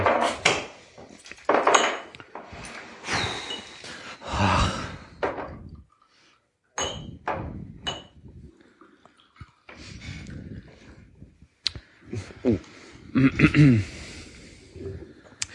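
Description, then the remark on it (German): Glasses clink and knock against a hard surface as they are shifted and turned, a series of irregular clatters and thunks with brief pauses between them. “Ich dreh mal die Gläser.”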